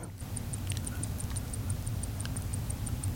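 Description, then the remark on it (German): A mechanical chronograph wristwatch ticks rapidly and evenly, about four light, crisp ticks per second, held close over a steady low background rumble, with no voices. “Ich höre sie ticken.”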